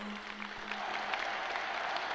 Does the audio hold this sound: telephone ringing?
no